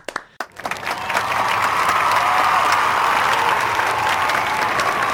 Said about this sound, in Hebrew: Uh, תראה, היה פה רעיון uh, של פרק 10, שאני חושב שהוא הרעיון הכי טוב שהיה, uh, ואני לא אומר את זה לכל אחד, ומותר לנו למחוא כפיים.